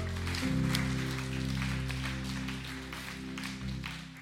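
A crowd applauds steadily for a few seconds, a dense wash of claps, while a low sustained keyboard tone hums underneath.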